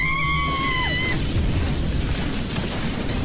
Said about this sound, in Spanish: Un fuerte relámpago sacude el lugar.